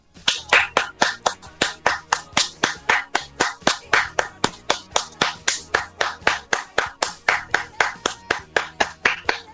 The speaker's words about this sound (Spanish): ¡Aplausos, por favor!